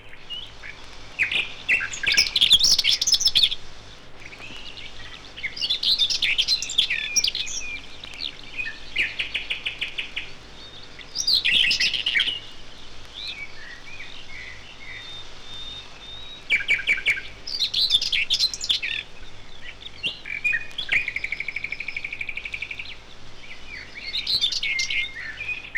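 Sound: common whitethroat song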